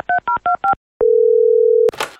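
Four quick touch-tone keypad beeps, then a single steady telephone tone holding for about a second before a sharp click of the line connecting, as a call is placed to an intimacy coordinator. No one speaks.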